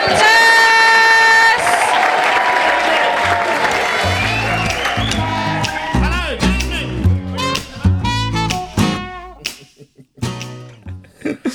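An Edinburgh audience claps and cheers loudly as a band is welcomed and its upbeat music starts, with a bouncing bass line and sharp rhythmic hits that take over as the applause thins out.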